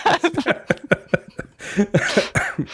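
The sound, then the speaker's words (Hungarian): A fit of coughing: a rapid string of short, choppy bursts followed by a few heavier, raspier coughs, loud and with no talking. “Van mire fogni a köhögésed kettő.”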